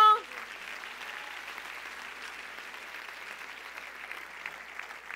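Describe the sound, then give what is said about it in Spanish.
An audience applauds steadily for several seconds, a dense, even patter of many hands clapping at moderate loudness, following a brief tonal sound at the very start. “Si usted quiere, usted aplaude y si no, no.”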